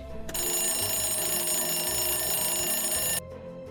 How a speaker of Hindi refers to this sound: कुछ दिनों तक तो सब कुछ ठीक चल रहा था लेकिन एक रात अचानक से घड़ी बजने लगी